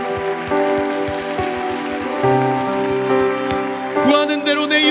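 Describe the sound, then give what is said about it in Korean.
An audience claps steadily after a Bible reading, giving thanks and glory to God, in a dense, continuous wash of applause, with sustained keyboard or organ music playing underneath throughout. “아멘 우리 하나님께 감사와 영광의 박수 올려드립시다”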